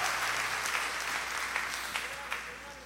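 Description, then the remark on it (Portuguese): A church audience applauds in celebration during a sermon, a dense wash of many hands clapping with a few sharper claps poking through, and faint voices murmuring underneath. “Se você entendeu que ela é para você, pode dar salva de palmas sim, pode celebrar sim, pode dar um glória a Deus em nome de Jesus, porque eu sou esse novo solo.”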